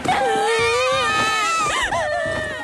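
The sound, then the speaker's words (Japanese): Several young voices, young temple acolytes who have wet their eyes with spit, wail together in loud, exaggerated fake crying, with overlapping sobs and whimpers sustained for a few seconds, continuous and with no clear words. “さあみんな大きな声で泣き真似しましょう小僧たちはみんな一休さんの言う通り目元を唾で濡らすと一斉に泣いたふりをしました”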